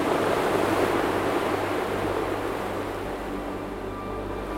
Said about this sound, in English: But the noise of the waves drowned him out.